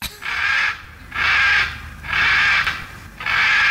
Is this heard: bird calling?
yes